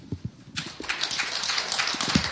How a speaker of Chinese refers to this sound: 大家用掌声鉴定了啊！